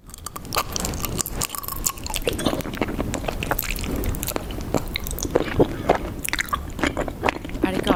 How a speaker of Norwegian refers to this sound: En av de mest populære tingene å spise i ASMR-verden, det er honning.